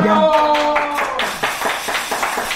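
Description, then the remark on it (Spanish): A brief, tonal voice-like sound gives way to a burst of irregular applause, a run of sharp, crisp claps at moderate volume that continues unevenly to the end. “nos suscribimos, aplaudan.”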